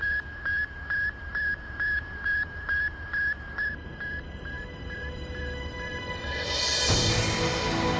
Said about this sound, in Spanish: ¿Puedo escucharlo? Por supuesto. Es una transmisión muy sencilla, un simple pitido repetido a intervalos regulares.